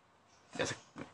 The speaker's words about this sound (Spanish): Bueno, no sé si alcance a oír. Pero ahí está, banda. Ahí está de fondo un pinche perro que digo. ¿qué, ¿Qué necesidad tienen de estar ladrando ahorita?